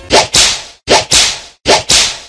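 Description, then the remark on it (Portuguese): Three loud whip cracks in a steady rhythm, each a quick swish followed by a sharp snap, with brief silences between them and no voices. “E mais uma vez eu vou botar o chicote.”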